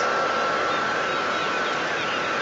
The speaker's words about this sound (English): sound of Dungeness power station. It sort of sounds like a plane taking off or something. There's a lot of steam coming from we can't really see where, just some holes in the wall.